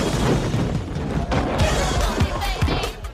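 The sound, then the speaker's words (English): A person takes a hard fall and bangs their knee, with a loud, busy tumble of thuds and clattering impacts rolling on for a few seconds, several sharper knocks standing out near the end. “Looks like you banged your knee pretty bad.”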